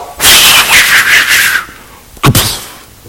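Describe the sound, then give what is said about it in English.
A voice imitates an axe chopping down a tree: a long, loud breathy swish with a falling whistle, then after a pause a short, sharp double hit, with no speech. “As one of them was cutting down a tree, the iron axe head fell into the water. So we get the chop, chop”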